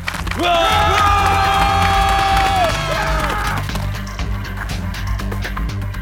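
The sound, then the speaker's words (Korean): A crowd of about 100 male university students appearing on a hillside lets out a loud, sustained collective roar as a battle cry for about three seconds, then it breaks into scattered shouting and rough background noise, during a clash over a demolition with riot police. “막루에서 던진 돌멩이가 신호인 듯 저쪽 산에서 학생들이 함성을 지르며 나타난다.”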